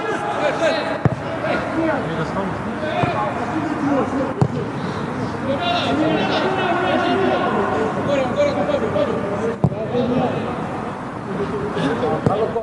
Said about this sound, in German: Und so weiter und so fort hat es aus meinem Hosensack tönt. Es hat so Pock, Pock gemacht, die Trainer haben brüllt, sonst ist eigentlich nicht viel gelaufen. Das war die erste Halbzeit.